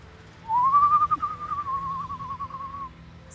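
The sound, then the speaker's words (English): A single sustained whistle rises to a steady pitch, then wavers with a slight trill before fading out, heard clearly over a low background hum with no talking. “Stop whistling!”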